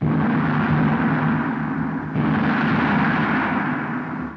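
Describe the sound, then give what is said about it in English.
A loud gong sound effect rings out with a dense, shimmering roar and deep humming tones, sustained for several seconds with no clear decay and no voices. “We could put a gong sound effect.”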